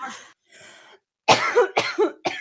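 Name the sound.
coughing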